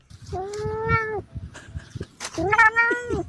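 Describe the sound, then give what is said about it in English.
A cat meows twice, two long, drawn-out wailing cries separated by a short pause, loud, with soft background noise and a brief murmur of voices. “well, he is a vocal thing, isn't he?”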